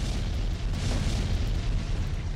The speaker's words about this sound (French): Raylork fait de même et envoie deux explosions.